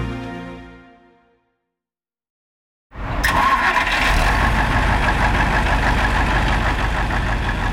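After a short musical tail fades into silence, a bus engine rumbles to life and settles into a loud, steady idle with a deep, continuous drone. It is a bus to Cologne (Köln), about 30 hours away by bus, being boarded by a passenger with three suitcases.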